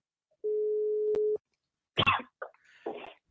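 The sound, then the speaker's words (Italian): A single steady electronic ringback tone from an outgoing phone call lasts about a second, ending with a small click, followed by a couple of brief coughs or throat-clearing sounds. “Allora, vediamo se la telefonata parte, ci assiste. Che angoscia ogni volta lo squillo, veramente.”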